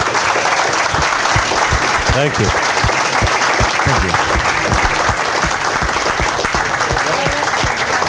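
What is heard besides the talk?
audience applause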